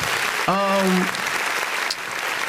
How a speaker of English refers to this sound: Yo, round applause for me.